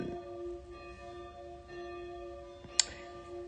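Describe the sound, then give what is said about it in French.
Bells chime noon, their overlapping tones ringing out steadily and fairly loud, with a sharp little click near the end. No one speaks. “Et, putain, il est midi. Eh, là, je, fais du bruit.”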